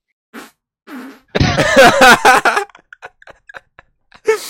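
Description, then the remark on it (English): A loud fart blasts into the microphone for about a second, broad and sputtering, followed by scattered faint clicks and short vocal bursts. “I got a really big fart brewing. See if it's come through the mic.”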